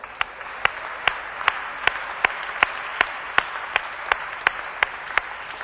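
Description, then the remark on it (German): Steady, warm applause from an audience at a church service, a dense wash of many hands clapping at an even level, with a few sharper individual claps standing out in a regular rhythm throughout, given for the visitors who are not church members. “Hey, Lasst uns ihnen einen herzlichen Applaus geben.”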